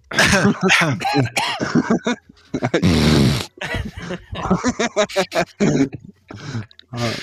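A person deliberately coughs and clears their throat several times in a row, with a longer, harsher rasping burst in the middle, fairly loud.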